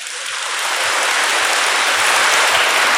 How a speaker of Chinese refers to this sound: 鼓掌